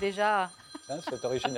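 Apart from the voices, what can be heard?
mobile phone ringing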